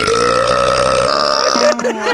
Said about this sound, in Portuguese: arrotar na mesa é coisa de baixo nível? Não, de jeito nenhum. Até porque o arroto é uma bufa que subiu na vida.